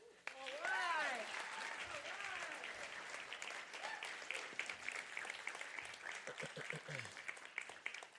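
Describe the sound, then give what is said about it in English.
An audience applauds to welcome a visiting pastor, a dense wash of clapping that holds at a fairly even level throughout, with cheering and raised voices rising over it near the start. “Give Him just, just a great applause to let Him know how much you appreciate Him coming to be with us,”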